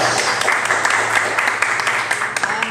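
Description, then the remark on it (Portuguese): An audience applauds the Lord steadily for a few seconds, many hands clapping in a dense, continuous wash with sharper individual claps popping out, fairly loud throughout, with indistinct voices blended underneath. “De Aplauda ao Senhor.”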